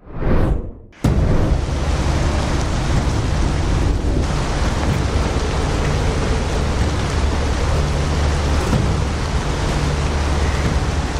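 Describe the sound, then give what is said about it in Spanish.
Heavy rain and gusting wind from Cyclone Biparjoy, which made landfall as a tropical storm in western India, roar steadily and loudly after a brief swell and a moment of near silence, a dense, unbroken wash of noise with a low rumble underneath. “Esta es la situación que enfrentan las personas debido a la llegada de la tormenta Biparjoy.”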